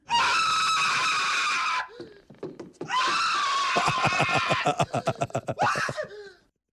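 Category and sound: sound effect, man's loud scream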